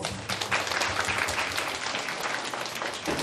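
Sustained applause from an audience, a dense steady wash of many hands clapping at once, fairly close and loud, lasting throughout with no voices standing out.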